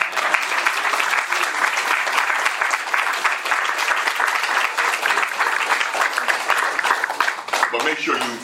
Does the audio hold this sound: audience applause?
yes